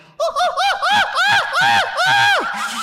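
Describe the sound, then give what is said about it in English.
A person imitates a chimpanzee with a rapid series of about eight loud, rising-and-falling hooting calls that build in intensity, sounding shrill and excited. “Well, I thought you said you were going to do animal impressions. Chimpanzee.”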